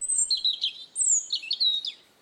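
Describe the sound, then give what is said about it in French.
A small bird gives a quick series of high, whistling chirps and trills, clear, lasting about two seconds with no one speaking. “Un petit sifflement vient lui chatouiller l'oreille.”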